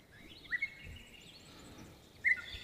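A parrot gives two short, shrill calls, one early and one near the end, over a faint background of thin chirping and whistling. There is no talking.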